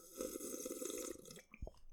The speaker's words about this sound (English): Let me cool down a bit. Let me take a sip of my water.